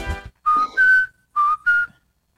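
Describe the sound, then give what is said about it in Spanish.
A person whistles a short melodic tune in four clear, pitched notes, two pairs separated by a brief pause, fairly loud, after a quick burst of voice at the start. “Continúame el silbido.”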